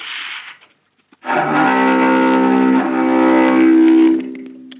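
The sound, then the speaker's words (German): A distorted cello tone holds one low, buzzy note for several seconds, loud, with a foghorn-like blare. A short burst of noise comes first, then a brief gap. “Das klang gerade wie ein Nebelhorn auf dem Kreuzfahrtschiff.”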